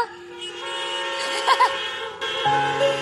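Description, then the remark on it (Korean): Several car horns honk together in a long, overlapping blare from a crowd of vehicles, as an audience sitting in their cars honks on request at a music performance, with a couple of brief louder bursts midway and a new sustained tone near the end. “신나시대 빵빵 한 번씩 해주세요.”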